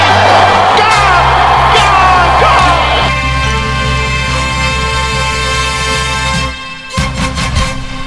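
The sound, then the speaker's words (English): A large cricket crowd roars and whoops in a loud, sustained wave of cheering with scattered yells as Siddle gets it, while a steady low tone hums beneath, fading slightly before ending. “crowd cheers”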